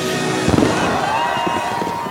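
Fireworks at the White House popping and crackling amid a loud, continuous roar, with a sharp cluster of bursts early on and a thin whistling tone threading through.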